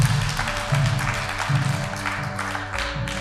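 A church audience gives the Lord a clap offering for those who surrendered their lives that day, clapping steadily throughout, a dense, continuous patter of many hands with sustained low musical tones humming underneath and no voices.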